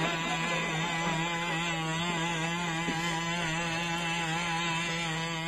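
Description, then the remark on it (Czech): A loud combustion engine of a Boston Dynamics legged robot runs continuously with a steady, buzzing drone and strong droning hum, unchanging over several seconds, dominant with no voices. “Dělá to malá firma, která se jmenuje Boston Dynamics, kterou nedávno koupil Google a když žádali o ty peníze, tak říkali, že to je pro průzkumné jednotky s tímhletím motorem by byly slyšet na několik kilometrů daleko, že jo, takže...”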